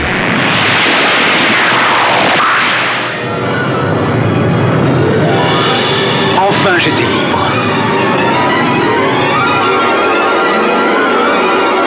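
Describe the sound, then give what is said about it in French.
A loud, sustained explosion roars with dense crackling rumble, a sweeping whoosh early on and another sharp burst midway, the blast noise filling the whole stretch without letting up. “Il y a alors une explosion.”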